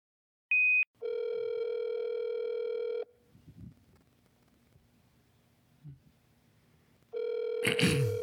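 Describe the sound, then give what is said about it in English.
A short high beep, then a phone line ringing while waiting for an answer: a steady two-second ring tone, a long quiet pause with faint rustling, and a second ring starting. “pick up the phone.”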